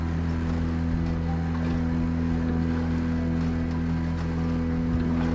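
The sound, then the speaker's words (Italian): A boat's engine drones steadily on Lake Prespa, a low constant hum with a wash of water noise beneath it, unchanging for the whole stretch and with no voices. “a Stegne cinque case, una famigliola e una barca.”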